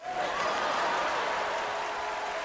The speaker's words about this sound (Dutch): Applaus!